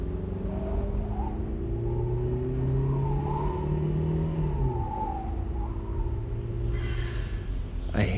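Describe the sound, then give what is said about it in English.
A car engine roars steadily as the vehicle accelerates at high speed on an empty desert road, its deep rumble and rising whine filling the whole stretch with no voices. “I don't know a lot about cars, but I'm going really fast, so maybe I'm about to break something.”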